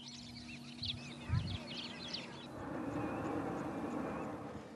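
Several birds chirp and twitter in a 117-square-kilometre national park, then a steady aircraft rumble swells up and largely drowns out the birdsong and animal sounds.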